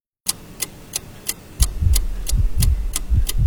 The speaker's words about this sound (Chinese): 时间一秒一秒流逝着，车内安静的可怕，只有每个人的心跳声和呼吸声。